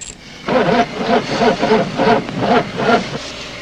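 A car engine cranks over and over in a steady, rhythmic churn for about three seconds, fairly loud, then stops without ever catching.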